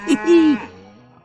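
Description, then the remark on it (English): A cow gives one long, low moo that starts with a short grunt, swells into a strong, drawn-out tone and then trails off quietly, with no other sounds around it. “All the animals gathered around the barn to snoop, but none of them could understand moo.”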